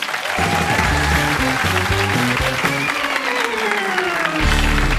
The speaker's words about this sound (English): Uh, please, ladies and gentlemen, a huge round of applause for Lloyd Langford.